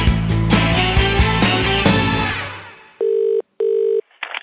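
After a loud musical passage fades out, two long, steady electronic telephone tones sound in succession, followed by a brief click as the call seems to connect.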